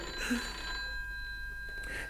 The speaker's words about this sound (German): Entschuldigen Sie, das ist das Telefon. Einen Augenblick bitte, ich stehe gleich wieder zu Ihrer Verfügung.